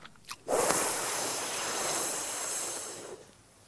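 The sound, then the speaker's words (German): A steady, breathy hiss of air drawn in sharply through the tongue, rolled like a tube and slightly stuck out, in Sitali pranayama breathing, lasting about two and a half seconds after a couple of faint clicks, fairly loud with no talking. “Sitali geht, indem er die Zunge rollt wie ein Röhrchen nach vorne, also die Zunge leicht rausstrecken und dann rollt und dann beim Einatmen einen zischenden Klang macht”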